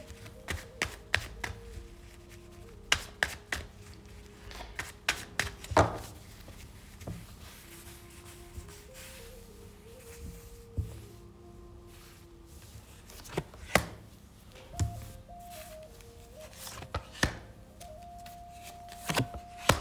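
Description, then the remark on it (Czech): Playing cards being shuffled for a card reading, a run of irregular crisp snaps and taps that bunch into quick flurries, with a soft sustained melody playing faintly in the background. “A já už se dívám na vaši fotku, míchám u toho karty a my se spolu podíváme na tu partnerskou oblast.”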